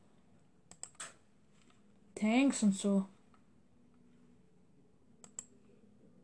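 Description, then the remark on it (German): A few sharp clicks from a computer mouse and keyboard while clicking through a card deck in a game, scattered before and after a brief spoken phrase, with quiet background between them. “Ich klicke halt jetzt gerade ein bisschen durch so.”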